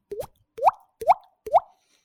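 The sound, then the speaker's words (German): Four evenly spaced mouth plops imitating a falling drop of wine, each a quick upward-bending pop like a water drop landing, with no other sound around them. “Das hört sich an wie der Tropfen, der direkt von deinem Herzen ins Glas fällt.”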